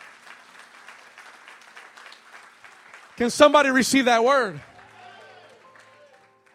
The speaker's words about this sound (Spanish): Alguien dice amén. Alguien que le dé un aplauso fuerte al Señor y que lo crea.